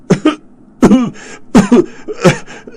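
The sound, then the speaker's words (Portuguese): A voice acts out a coughing fit for the character Lord Giles: four harsh, throaty coughs in quick succession, loud, with brief pauses between them and no talking. “Foi sacudido por outro ataque de tosse.”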